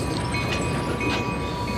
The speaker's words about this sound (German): Eine alte Bahnlinie mit einer rumpelnden Eisenbahn trägt zur Industrieromantik bei.